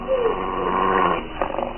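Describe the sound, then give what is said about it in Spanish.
A large mastiff, on the defensive as a man threatens it with a sharp stiletto, growls low and menacingly in one sustained, rumbling snarl that rises into a harsher burst near the end, fairly loud, with no talking. “El varón amenaza con filoso estilete, pero el enorme mastín se pone a la defensiva y gruñe amenazante.”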